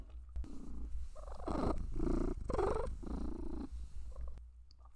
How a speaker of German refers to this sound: die gluckst richtig beim Schnurren. Also ich sage auch nie, dass meine Katzen schnurren.